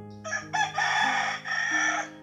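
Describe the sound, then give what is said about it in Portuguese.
A rooster crows once, loud, a harsh multi-part call that rises and then holds a long, strained final note, with no voices around it. “O galo cantou, ele veio avisar.”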